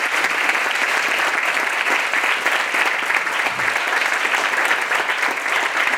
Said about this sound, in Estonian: aga ma paluks, teeme suure-suure aplausi meie suurepärastele panelistidele.